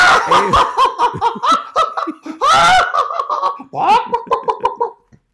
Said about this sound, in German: das Ding ist halt, ich weiß, meine Lache, oh, wie oft mir in den letzten Wochen gesagt wird, äh, oh, deine dreckige Lache. Aber oh, ich habe jetzt übersteuert hier beim, beim Gackern.